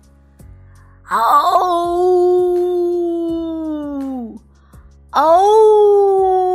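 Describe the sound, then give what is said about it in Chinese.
A wolf pack in a forest at night howling: one long, steady howl that holds its pitch for about three seconds before sliding downward, then a second howl starts after a brief pause. Loud, with faint low rumbling underneath. “狼群望着这奇怪的光，开始嚎叫。”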